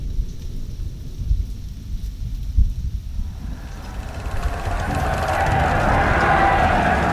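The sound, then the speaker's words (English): A thunderstorm at sea: a stormy wash of wind and rumbling low noise, starting with deep gusty rumbles that build into a loud, steady roar of wind and rain-like hiss, with no voices. “it seems like a storm has risen across the sea for our friends. An unholy storm.”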